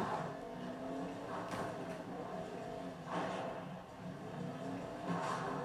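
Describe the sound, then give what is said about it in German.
A video game car engine revs steadily throughout as the player tries to turn the car around, with rising bursts of acceleration roughly every one to two seconds and faint tire noise, loud with no talking. “So, dreh dich, Auto.”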